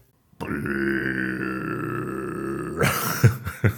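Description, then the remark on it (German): A long, drawn-out burp rumbles steadily for over two seconds, loud, then trails off into a few short breathy, throaty bursts. “also ich bin mir sicher, es gab schon längere Rülpser.”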